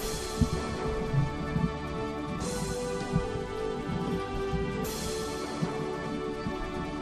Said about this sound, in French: son ron son ronronnement quand elle fait ronron hein, quand elle ronronne